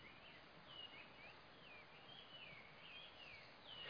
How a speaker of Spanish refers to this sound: Eh, todavía está oscuro y tímidamente unos pajaritos están saludando el nuevo día.